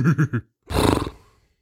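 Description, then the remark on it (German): A human voice imitates a unicorn's whinnying laugh: three quick, laugh-like voiced pulses, a brief pause, then a rough, breathy neighing burst that fades out. “Das Einhorn lachte wiehernd.”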